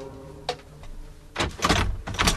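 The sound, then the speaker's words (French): A door opens: a small click, then a longer scraping, rushing sweep as it swings or slides, with a brief pause before a final push. No voices. “Mais, tiens, on dirait que la porte est ouverte. Ah, il a laissé ouvert pour nous.”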